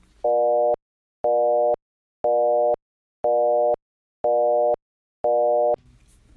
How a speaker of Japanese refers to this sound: あのウィキペディアというネットの偉い先生に聞くとですねいろんなことがわかるわけですが1980年よりも前にはこんなビジートーンが使われていましたこちらも聞いてください